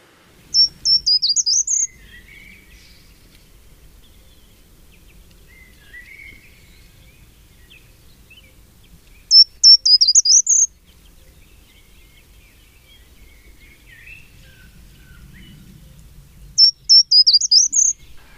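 A short-toed treecreeper sings in Tivoli, a few metres away in a willow, three brief, quiet, very high-pitched phrases spaced several seconds apart, each a quick run of thin descending notes, with faint other birds and a soft low rumble between.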